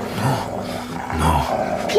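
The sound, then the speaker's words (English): Dogs growl low and rough in two sustained bursts, fairly loud, with a brief higher yip near the end, as they are set on a boy. “Set the dogs on him, oh.”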